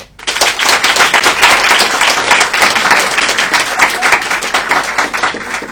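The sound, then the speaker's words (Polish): Dense, steady applause from a crowd, many hands clapping at once in a loud, continuous patter that holds for several seconds without any talking, measured by a clap meter as the audience reacts to proposed ideas. “Państwo zaczynacie bić brawo, sprawdzimy to, proszę bardzo.”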